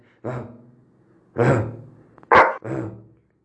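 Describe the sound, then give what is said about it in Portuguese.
Four short dog barks played as a sound on a mobile phone, reproduced and slightly tinny. The first two are spaced apart and the last two come close together, with no talking in between. “Eu já tive um gato no celular que miau, miau. Agora eu botei o cachorro.”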